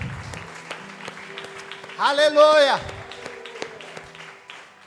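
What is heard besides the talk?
audience applause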